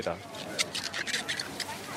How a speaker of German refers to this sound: Weiße geschlossene Köpfe, natürlich frisch, erkennt man daran, dass wenn, wenn man den Spargel aneinander reibt, dass die Stangen quietschen.